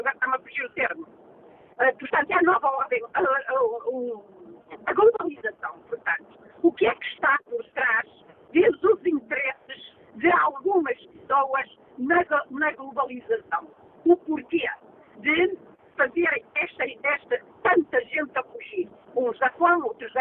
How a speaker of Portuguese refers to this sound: a ligação por telemóvel, eh, nota-se que está em viagem, a ligação por telemóvel não está nas melhores condições, mesmo assim julgo que foi perceptível para os nossos ouvintes